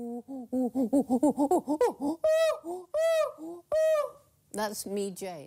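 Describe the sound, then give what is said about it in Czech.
A human voice imitates a chimpanzee pant-hoot, the call used to greet someone on the other side of a valley: a quick run of rhythmic, breathy hoots rising in pitch, swelling into several long, loud wailing calls, then ending in shrill cries. “Každý šimpanz má svůj vlastní zvuk.”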